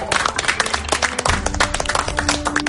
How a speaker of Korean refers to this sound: 자, 여러분. 이 자신의 입장을 변심한, 번복한 이 세 분에게 박수 부탁드리겠습니다. 아, 용기 있는 분들이에요.